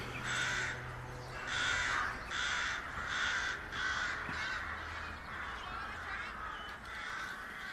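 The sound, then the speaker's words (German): A large flock of rooks cawing in the sky, with harsh, raspy calls overlapping in a steady, pulsing chorus that carries on throughout without a break. No voices are heard. “denke ich wieder über den grossen Kreienschwarm am Himmel nach.”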